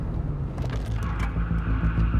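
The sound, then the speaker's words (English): A car brakes suddenly while turning north on Spadina as a man runs in front of it, a heavy low rumble with a few sharp scraping bursts over the steady engine noise, and no voices. “The light was green on Spadina, and I was turning north when a man ran in front of my car.”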